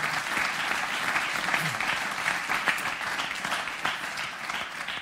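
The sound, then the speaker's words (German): Steady audience applause fills the whole stretch, many hands clapping at once in a dense, even wash of sound with no talking over it. “Auch für dich, für euch, ein Applaus.”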